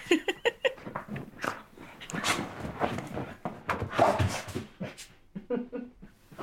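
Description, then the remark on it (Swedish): Dogs whimper and whine in short, uneven bursts, with restless shuffling and some panting, moderately loud throughout. “Det är hundarna som håller på här i bakgrunden.”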